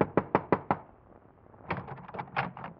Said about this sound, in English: Your hand trembles as you knock on the door.